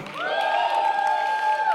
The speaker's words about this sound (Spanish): Alguien de un grito de júbilo.